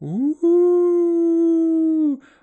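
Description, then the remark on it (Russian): A person imitates a wolf's howl: a short rising whoop, then one long, loud, steady sustained note that drops off at the end, performed alone. “Он сгромоздился на стол, вытянул шею и завыл.”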